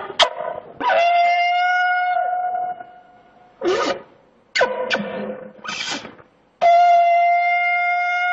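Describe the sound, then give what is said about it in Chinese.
A horn-shaped birch-wood deer whistle, thick at one end and thin at the other, as made by the Evenki people to call reindeer, imitating a reindeer call: a series of sustained, reedy, harmonic calls, some long and level, others short bursts, loud and alone with brief silences between them. “其实这并不是驯鹿的叫声，但是却与驯鹿的叫声非常的相像，这是鹿哨发出的声音。”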